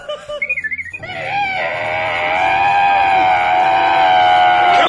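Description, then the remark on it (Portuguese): A voice imitates a ferret's death scream: a quick run of squeaky, chirping yelps, then one long, shrill, piercing shriek held for several seconds, loud. “Uma vez ela entrou no elevador e a porta pantográfica de 5 toneladas fechou na cabeça do furão, cara.”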